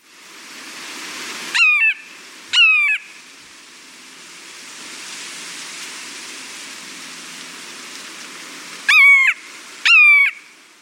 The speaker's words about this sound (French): Son habitat, c'est les bois, les rivières en forêt et les forêts marécageuses. Et comme à l'habitude, voici le chant et le cri de l'oiseau à l'honneur aujourd'hui.